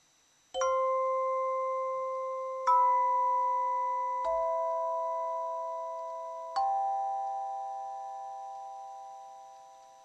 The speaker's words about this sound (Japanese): いかがでしょうか結構ね響きが長く続く楽器なんですけれども、えー、名前はですねトーンチャイムって言います